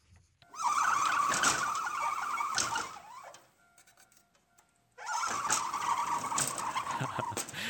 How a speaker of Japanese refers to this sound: いつも使っている公民館が築80年超えの建物です。そうえー、この建物の窓の開け閉めする音が何とも面白いので録音してみました